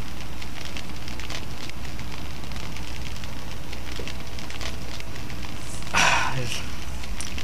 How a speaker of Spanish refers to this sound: Así que, bueno, aguántenme tantitititititito esto tomar un traguito de agua.